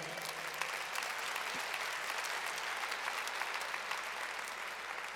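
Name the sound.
audience applauding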